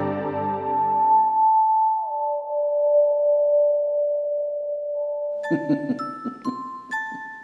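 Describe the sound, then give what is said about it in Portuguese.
Claws scratch a glass window: a thin, high-pitched screech drags across the glass, holding steady and then sliding lower in pitch, before breaking into a series of sharp, uneven squeaks near the end. No voices. “Aquela, aquele barulho de unha é, arrastando assim, aquele som agudo arranhando janela você sente a janela começar a trincar.”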